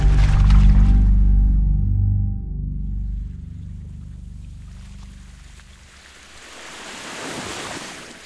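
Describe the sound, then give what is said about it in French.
Ocean waves crash and roar, starting with a heavy low rumble that eases, then a fresh wave breaks with a bright hissing wash near the end. No voices. “À demi conscient, il se bat comme un forcené contre la furie des vagues.”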